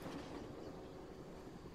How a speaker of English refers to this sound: They spot smoke on the horizon from a train they still can't see, but that can already be heard.